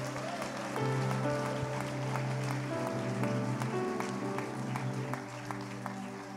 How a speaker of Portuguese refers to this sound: Você pode aplaudir Jesus bem forte.